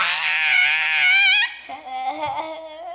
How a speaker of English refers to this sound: Number three, sometimes you just gotta scream.